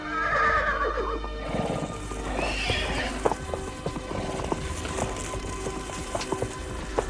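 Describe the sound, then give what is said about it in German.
Horses whinny at the start, with a second neigh around the middle, while hooves clop on hard ground in an uneven, steady rhythm under a constant low rumble. The horses are being saddled as camp is packed up. “Gleich nach dem Frühstück räumten die drei Fragezeichen Donovan und Zieler ihr Lager und sattelten die Pferde.”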